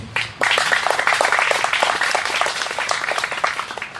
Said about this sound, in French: Je pense que vous n'avez pas encore assez applaudi pour cet homme.